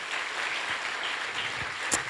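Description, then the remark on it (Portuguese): A church audience applauds a class completing its Advanced Discipleship 2 course: a dense, steady wash of many hands clapping at once, holding an even, fairly loud level for about two seconds with no one speaking over it. “Também queria pedir uma salva de palmas para essa turma, concluindo.”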